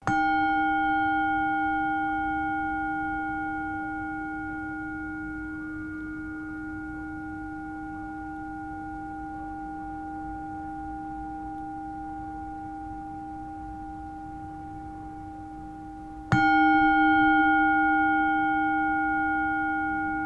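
A mindfulness bell struck once, its steady, ringing tones humming and slowly fading for about sixteen seconds before a second stroke rings out just as loudly. No one speaks.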